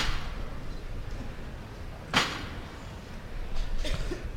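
A single sharp, resonant knock from the knocker hammer of a procession float (paso) carrying an image of Christ on the cross rings out once over a steady wash of background crowd noise, followed by a few softer rustles.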